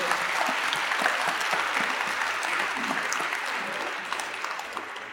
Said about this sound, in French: Un grand, grand, grand ovation. Applaudissements pour l'équipe qui nous accueille au niveau organisationnel. Merci à tous.